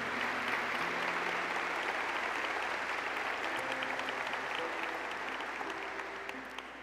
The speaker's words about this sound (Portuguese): Eu quero que você dê um aplauso a todo esse time.